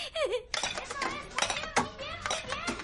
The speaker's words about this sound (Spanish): Ronda tira puré en el fregadero.